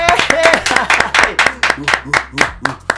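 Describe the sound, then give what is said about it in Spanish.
Brisk, steady hand clapping, roughly fifteen sharp, loud claps in quick even rhythm, with a faint voice murmuring underneath at the start. “¡Aplauso para mi”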